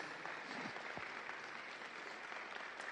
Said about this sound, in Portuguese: Amém? Aplauda o Senhor Jesus.